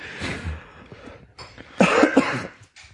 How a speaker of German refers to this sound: Du hustest auch ganz schön.